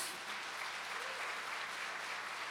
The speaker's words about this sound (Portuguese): Você pode dar um aplauso e um glória a Deus?